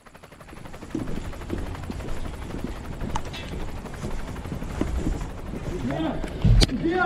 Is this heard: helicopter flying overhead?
yes